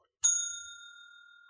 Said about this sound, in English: Okay, so I'm gonna I'm gonna hit the bell just okay. in case you are gonna watch this and don't want us to spoil it.